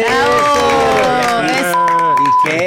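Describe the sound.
A crowd cheers loudly for a few seconds, with sustained shouted voices rising and falling in pitch over a steady wash of noise that could be clapping.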